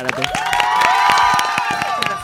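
A small audience on a radio show claps and cheers to welcome back a returning colleague, with bright whoops and excited voices rising over a steady patter of applause for a couple of seconds.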